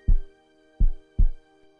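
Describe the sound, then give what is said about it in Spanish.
A heartbeat sound effect: three deep, booming heartbeat thumps in a loose lub-dub rhythm, heavy, over a steady sustained musical drone with no voices. “Escucha a tu corazón.”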